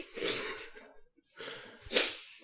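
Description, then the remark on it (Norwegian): Loud swallowing while drinking: two breathy, gulping bursts about a second apart, the second sharper, with no talking. “Jeg svelger ganske høyt.”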